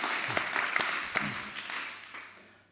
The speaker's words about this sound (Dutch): Nou, ik vind dat wij een applaus, applaus verdienen, vind je niet? Gewoon een applaus voor elkaar, maar nog even een heel groot applaus voor God.